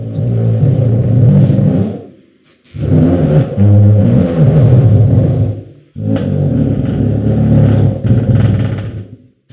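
A friction drum, or lion's roar, made by fixing a rosined string or rope to the center of a drumhead and dragging a clenched hand or wet cloth along it, sounds three long, loud growling strokes, each a rough low roar with a grinding, rasping texture, separated by brief gaps.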